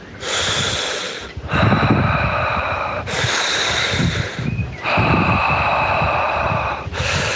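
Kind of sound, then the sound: human body sound, exaggerated deep breathing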